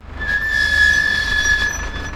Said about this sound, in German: Der Fahrer eines LKWs erspähte uns gerade noch rechtzeitig und stieg scharf auf seine Bremse. Mit ächzenden Achsen kam der Gigant einige Meter hinter uns zum Stehen.